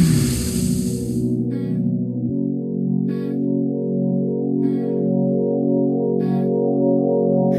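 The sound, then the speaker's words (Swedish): A new song plays loud from a Release Radar streaming playlist: a noisy swell opens into steady, warm sustained chords over a deep bass, with a crisp percussive hit landing about every second and a half. No voices. “Här är ny musik som vi tror att du gillar. Mm. Så kommer du på en låt. Ja, spela den.”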